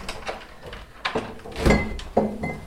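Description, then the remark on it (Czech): A door in a tower is opened on the way to the mechanism of a village astronomical clock, with a few clunks of the latch and a short creaking squeal of hinges, followed by a thud; no one speaks. “Ještě jedny dveře.”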